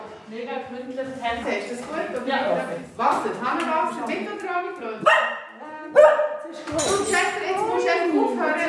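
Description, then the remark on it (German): An old mixed-breed dog with big long ears barks repeatedly, sharp yaps mixed with drawn-out, whining, howl-like cries. The barking is loud and fairly continuous with brief pauses, echoing slightly in a large open living room and kitchen with a stone-slab floor. “mit ihrem alten Hund, einem Chester. Eine wilde Mischung mit grossen, langen Ohren”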